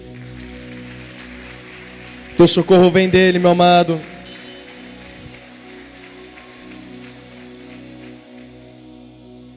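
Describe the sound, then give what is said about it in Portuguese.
An audience at a worship service gives God a strong round of applause in a dense, steady wash of clapping that runs the whole time. A man's loud voice speaks briefly over it, and then the clapping carries on a little softer. “Se você crê nisso, dê um forte aplauso a Ele.”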